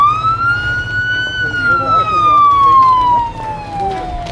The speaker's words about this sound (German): Macht Platz für die Feuerwehr!